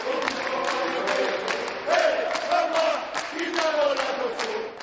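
A crowd of male prison inmates in a prison dining hall claps steadily while singing together for Pope Francis in loud, chant-like voices, the rising and falling group melody carrying over continuous dense applause for about five seconds.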